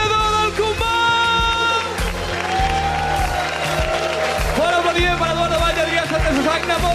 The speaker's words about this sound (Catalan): Per aplaudiment!